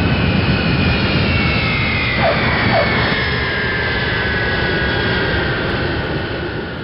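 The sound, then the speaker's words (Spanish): A loud, steady jet engine roar fills the whole stretch, with a high whining tone drifting slowly downward: an airplane arriving from Spain, landing. “el avión que traía mi amiga desde España aterrizara antes.”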